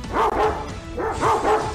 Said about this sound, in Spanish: Saquen ese perro.